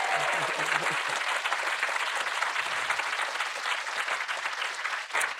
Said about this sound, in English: Our guest today, get ready to clap again, is Luke Turner. Yay!